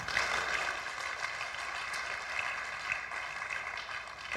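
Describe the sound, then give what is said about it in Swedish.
An audience claps together during a sermon in steady, dense applause that fills the whole stretch at an even loudness, with no voices cutting through. “Ni, alltså spontant får ni känna, vill ni en applåd så är det läge.”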